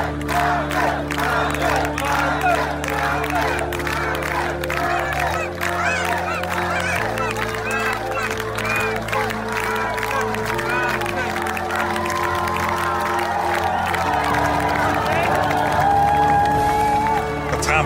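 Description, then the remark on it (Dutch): A large crowd of many people standing there cheers and shouts continuously for the whole stretch, a loud, dense mass of overlapping voices with a steady low droning tone running underneath. “Dan denkt iedereen dat je ziet zoveel mensen daar stonden toe te juichen.”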